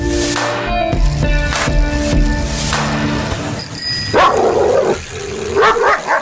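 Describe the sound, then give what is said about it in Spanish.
A dog barks several times in quick, uneven bursts, fairly loud, over a busy layered background of other sounds; no one speaks. “Maneja con precaución y cuidado con el perro.”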